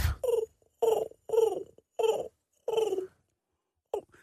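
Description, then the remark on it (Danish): A man's voice imitates a carrier pigeon's cooing in a series of about six low, throaty, rounded coos with short pauses between them, fairly clear, with no other speech. “Det klarer du meget godt, det der”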